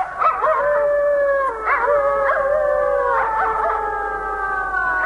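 Several wolves howl together in long, sustained, wavering tones that overlap and rise and fall, filling the whole stretch without pause, with no speech.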